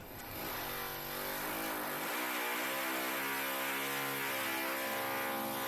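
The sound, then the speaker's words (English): Loud, continuous drilling noise with a steady motor whine whose pitch wavers and shifts slightly as it runs for several seconds, without any voices. “I hate to ask, but is there any chance you could stop drilling for a bit, please?”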